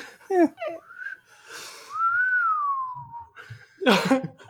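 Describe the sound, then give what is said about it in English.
A person whistles a slow, drooping tune in imitation of the sad beeps of the Star Wars droid R2-D2, a long falling tone between short chirps, fairly loud, ending with a breathy burst like a laugh. “That was my sad R two D two.”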